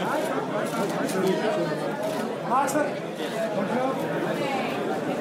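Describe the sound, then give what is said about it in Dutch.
Dense crowd chatter at a red carpet with many camera shutters clicking in quick, scattered bursts, the sharp clicks partly buried under the steady murmur of voices. “En alle camera's, nou je hoort het geluid misschien.”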